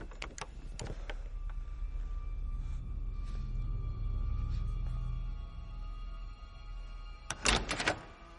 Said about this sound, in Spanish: El pomo de la puerta se mueve.